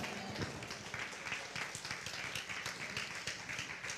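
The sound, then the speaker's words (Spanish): A crowd gives loud applause to the Lord, many hands clapping in a dense, continuous patter with a few sharper claps standing out, sustained at an even loudness for the whole stretch with no talking. “Gloria, denle fuerte aplauso al Señor.”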